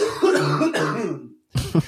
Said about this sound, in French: Je vais tousser.